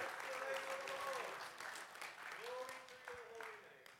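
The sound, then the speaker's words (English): An audience claps steadily while voices shout and cry out in praise to God, sustained and lively throughout, with a couple of held vocal exclamations rising above the dense applause. “Let, can we just shout to him again, clap, or do something?”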